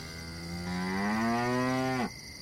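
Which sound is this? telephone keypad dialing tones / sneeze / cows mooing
cows mooing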